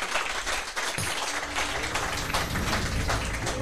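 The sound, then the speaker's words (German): A brief burst of applause from a small group for their sound technician, dense steady clapping that holds at an even level for a few seconds without any voices. “Kleiner Applaus hier ja. erstmal für unseren Tontechniker.”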